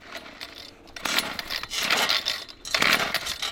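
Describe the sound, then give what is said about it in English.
An auger drills test holes through lake ice to check the fishing spot, with gritty, grinding bursts of high crunching noise that surge and pause in three loud stretches, without any talking. “Once we got to where we wanted to be on the lake, we had to drill a few test holes through the ice to make sure that we were actually in the right area.”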